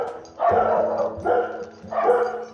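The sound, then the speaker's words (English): Dogs bark three times in a steady rhythm, each bark loud, full and harmonically rich, with short gaps between them and no talking. “You shouldn't let your dogs out like that if they're going to do that.”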